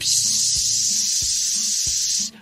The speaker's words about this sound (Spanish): un ruido que, se acomoda más bien a una como, como a una fuga de aire. A ver, estoy oyendo algo, me pongo a escuchar, me pongo acá a pensar, a ver, ¿de dónde podrá venir ese ruido?